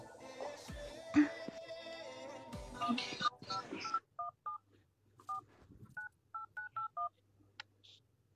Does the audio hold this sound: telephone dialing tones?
yes